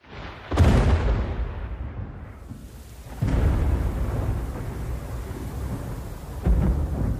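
A thunderstorm with deep rolling thunder: three heavy cracks break out in turn, each swelling into a long low rumble that lingers over a steady wash of rain. No voices.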